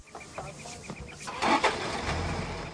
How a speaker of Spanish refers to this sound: Al oír el rugido de un motor, se incorpora extrañado. Sale de la tienda en calzoncillos y ve que Roland y el profesor suben a un todoterreno.